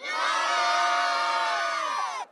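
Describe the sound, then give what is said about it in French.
A large, euphoric crowd, including young admirers, cheers and shouts continuously at high volume as it gathers to catch a glimpse of the pope, many voices blending into a dense, sustained roar before cutting off abruptly. “La foule a répondu présente pour apercevoir le pape, et notamment ses plus grands admirateurs, euphoriques.”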